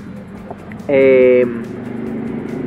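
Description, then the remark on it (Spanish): Steady low city street noise with traffic hum runs throughout, broken by a loud, steady horn-like tone lasting about half a second. A person briefly says something over it. “Claro si escuchan hay mucho ruido de fondo es porque sí, estamos grabando hoy en la, en la urbe”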